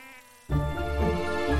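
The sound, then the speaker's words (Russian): A loud, dense swarm of mosquitoes buzzes, kicking in abruptly after a brief low hum and droning on continuously with a wavering, whiny pitch. No one speaks. “И они, ну эти запятые, как туча комаров, но очень большая, слетелись в комнату. Эти комары сновали туда-сюда.”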